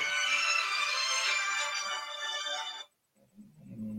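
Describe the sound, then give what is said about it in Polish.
A phone ringtone plays loudly, a bright, steady electronic melody lasting about three seconds before it cuts off abruptly, leaving only faint low rustling. “Przepraszam, wyłączę telefon, który.”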